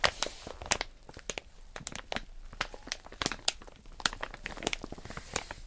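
Dense, irregular crinkling with sharp crackly bursts scattered throughout, moderately loud and continuous for several seconds, with no voices.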